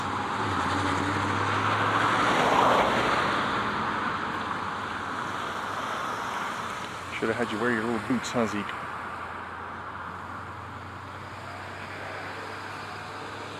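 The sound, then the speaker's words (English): Steady rumble of cars passing on a street, with one vehicle swelling louder early on, while a man talks briefly over the outdoor traffic noise. “Uh, come on, cars.”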